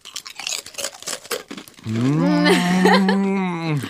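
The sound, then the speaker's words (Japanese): A crunchy soy-sauce-seasoned rice cracker (senbei) being chewed, with a quick run of crisp, irregular crunches for about two seconds, followed by a long, steady hummed voice tone that replaces the chewing. “最近食べたおせんべいの中で一番うまいね、うん、美味しいね、うん、びっくりした”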